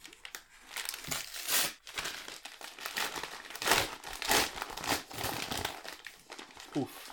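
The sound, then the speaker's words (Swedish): Continuous crinkling and crackling of plastic wrapping as a package containing a film collection is torn open, with bursts of tearing and rustling over several seconds, plus a brief murmur of voice near the end. “Jag öppnar den. Det kommer att vara ett litet jobbigt ljud här bara.”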